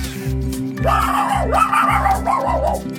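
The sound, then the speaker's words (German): A person imitates a female dog nearly mauling another dog, letting out a rapid series of snarling, yelping barks and growls over a steady low pulsing background beat, loud, for about three seconds. “Den einen Hund hat sie sogar fast zerfleischt.”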